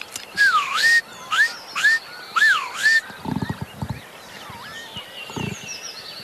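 Northern lapwing calls during aerial display flights, picked up by a field microphone: four loud, wheezy, swooping cries in quick succession, followed by fainter calls and soft throbbing pulses, with no voices.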